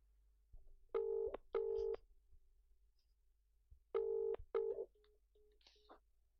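A phone line rings out in a double-burst pattern, two quick tones, a pause, then two more, fairly loud and clean with no one talking, followed by a few faint short beeps.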